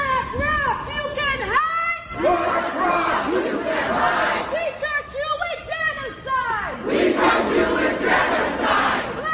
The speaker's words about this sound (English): That sound from when over a dozen protesters gathered in the lobby of BlackRock's headquarters, which is over in Hudson Yards.